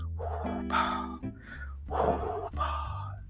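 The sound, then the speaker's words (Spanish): A voice imitates a masked villain's raspy, mechanical breathing: three heavy, hissing breaths in a slow rhythm, fairly loud, with a low growl beneath the rasp. “Eh, súper, súper distinguible, una voz ronca, inigualable y esa respiración, ¿no?”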